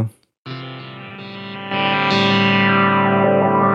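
A homemade, portable polyphonic synthesizer plays sustained, buzzy chords with rich harmonics, briefly cutting out near the start before swelling louder and fuller, a thick layered tone with a slightly distorted, effected edge.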